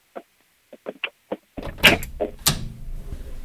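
A door is pushed shut: a few light clicks and rattles from the handle, then a heavier thump and a sharp knock as it closes against a low background hum.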